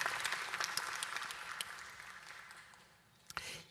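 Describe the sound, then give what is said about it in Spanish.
An audience applauds the pastor's mother together in a steady wash of many hands clapping, fairly loud at first and gradually thinning out, with a few final claps at the end. “Y que a lo mejor, ya, siempre un aplauso para mamá es bienvenido.”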